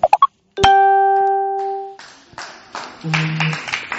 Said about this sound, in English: Praise the Lord. Give, why don't we give the Lord a hand clap and praise?